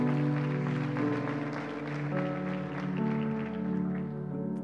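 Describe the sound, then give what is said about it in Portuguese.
An audience at a church service applauds for Jesus, clapping steadily throughout, a dense patter of applause blended with sustained keyboard or organ chords holding underneath at a fairly even loudness. “Dê uma salva de palmas a Jesus aí.”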